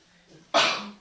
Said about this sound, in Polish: Na zdrowie.